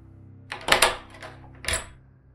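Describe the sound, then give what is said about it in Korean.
A metallic door handle is gripped and twisted with a couple of sharp clicks, followed by a latch releasing as the white door of a drawing room opens; fairly quiet, with a low hum underneath and no voices. “짧은 심호흡을 거친 후 문 손잡이를 움켜쥔 손을 비틀어 문을 열었다.”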